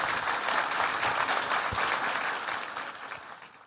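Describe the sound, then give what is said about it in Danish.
Sustained audience applause, a dense wash of many hands clapping at steady volume that gradually tapers off toward the end, with no voices over it. “Giv mig en hånd.”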